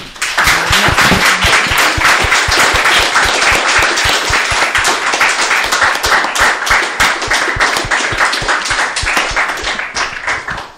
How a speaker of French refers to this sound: Et donc, vous demandez, chers amis, d'applaudir notre conférencière.